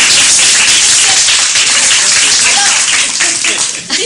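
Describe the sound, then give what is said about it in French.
An audience applauds steadily for about four seconds, a loud, dense wash of many clapping hands that holds its level throughout before thinning slightly at the very end. “que vous applaudissez, je vais vous dire encore une chose.”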